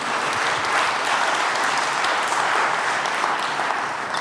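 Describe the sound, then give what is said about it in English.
An audience claps hands together in sustained, dense applause after the preacher calls for clapping, a steady loud wash of many overlapping claps with no voices standing out. “Come on, clap your hands if you understood it.”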